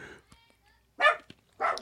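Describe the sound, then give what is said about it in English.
Dogs bark twice, two loud, sharp barks spaced about half a second apart after a quiet stretch with faint murmuring. “All right, how to get the dogs out of here.”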